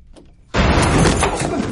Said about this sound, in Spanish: Chris se resiste. Logra abrir la puerta. Jeremy se la cierra.